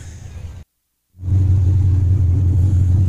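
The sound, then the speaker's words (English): The overheating hobby stock race car of Steven Shelpman, winner of the third annual Josh Langer Hobby Stock Invitational, is kept running in Victory Lane to preserve the engine before shutting it off. The engine runs with a loud, steady low rumble, dropping out briefly near the start before resuming and droning on without pause. No one speaks. “So Shelpman's car is overheating, and they're trying to make sure that they get that taken care of before shutting the vehicle off.”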